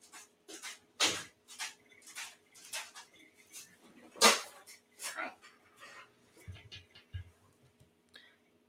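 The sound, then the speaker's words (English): A dog shuffles around, with quick, breathy panting and soft rustling bursts repeating for several seconds, plus a couple of sharper clatters and low thumps. “My dog is okay.”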